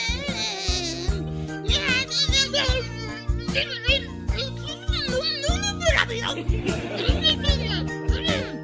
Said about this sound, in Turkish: Evet arkadaşlar. Siz ilahi dinlemeye devam edin.